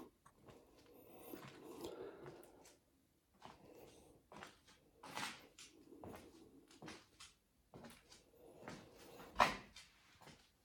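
A bathroom door is handled, with scuffs, creaks and soft knocks, ending in a sharp latch click as it shuts. No one speaks.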